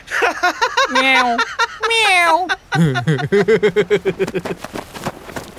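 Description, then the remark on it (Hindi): Two drawn-out, wavering meows from a male cat, one after another, followed by a quick run of short, choppy bursts that resemble chuckling or rapid chirps. “help मेरी बिल्ली मुझे ही काटेगी अरे भूल गया सॉरी तू तो बिल्ला है”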